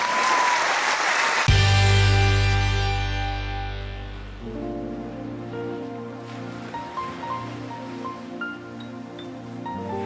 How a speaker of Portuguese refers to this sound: Uma salva de palmas para o Sr. Alberto